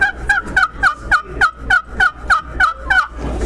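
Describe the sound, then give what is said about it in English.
A wooden box-style turkey call, worked by hand, plays a steady run of about twelve raspy yelps, evenly spaced and fairly loud, each a scratchy two-note squawk with a low hum beneath. “So, uh, in in my my strive, what I strive to do in a turkey call is make one that's easy to use.”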